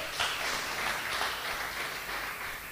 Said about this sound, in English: You can clap for that.